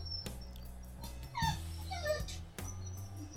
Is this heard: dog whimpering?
yes